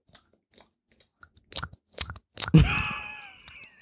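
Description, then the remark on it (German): Squishy, crackling squeezes of a soft rubbery masturbator sex toy: scattered small clicks, then a few louder squelching presses ending in a wet, sustained squeak that slowly fades. No talking. “das ist das Geräusch, das der Masturbator macht.”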